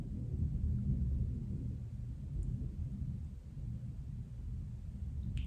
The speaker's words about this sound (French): Moi, j'ai la chance, à ce moment où je suis en train de vous parler, d'entendre l'orage. Ici à Paris, il y a l'orage et de temps en temps, il y a le tonnerre.